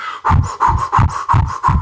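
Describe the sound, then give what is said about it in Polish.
A voice imitates Inuit throat singing: about six quick, rhythmic breathy pulses, each a low rasping grunt with a faint whistly tone on top, fairly loud and alone. “I pamiętam, że to generalnie brzmiało jak ludzie, którzy napili się zbyt gorącej herbaty i trochę gwizdali przy tym”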